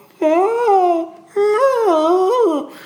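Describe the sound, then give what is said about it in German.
A person imitates a cat yowling in a plastic carrier box on the back seat of a car during a drive of about 20 minutes, two long wavering wails with rising and falling pitch, loud, separated by a brief pause. “habe ich auch die Katzen. Also so, man muss sich, ich versuche das mal zu reenacten”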